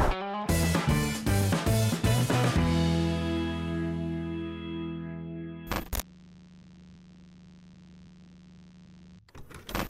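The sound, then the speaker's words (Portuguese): The Clube do Valor YouTube channel intro jingle: a burst of punchy, distorted synth stabs rings out into a long fading chord, then a sharp swoosh gives way to a low droning tone before a final hit. “Enquanto roda a vinheta, deixa aqui o teu comentário.”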